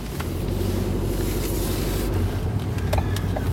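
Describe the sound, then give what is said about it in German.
A car, just refueled at a filling station pump, carefully pulls back out into traffic: a steady low rumble of engine and road noise, constant throughout, with a few faint clicks and no voices. “Also weiter im Text, sobald ich hier vorsichtig mich wieder in den Verkehr eingefällt habe.”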